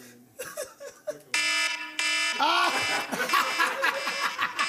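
A loud electronic timer alarm beeps in two long, steady tones, cutting in over people chattering and laughing, then the voices keep going as the alarm fades.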